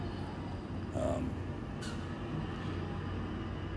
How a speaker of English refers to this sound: Hold on, another bus came through.